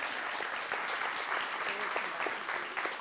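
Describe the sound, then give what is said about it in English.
A crowd claps steadily in sustained applause for the Smithfield Police Department, a dense, even patter of many hands at moderate volume, with faint murmuring voices mixed underneath. “So if we can just give them a round of applause, they're not here tonight, but we will do that for them.”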